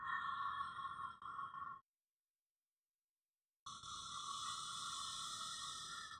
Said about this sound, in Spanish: Fíjate, en el taoísmo hay una respiración, se llama la respiración de agua, es así.